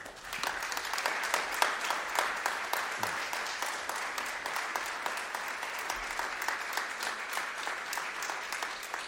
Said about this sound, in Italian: E dunque credo sia doveroso il primo grande applauso tributarlo a lei questa sera.